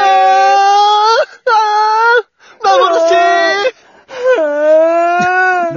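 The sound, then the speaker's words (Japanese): A person vocally imitates crying in four long, wavering wails with brief breaks between them, loud, the pitch sliding and quivering like exaggerated sobbing. “泣いてる。”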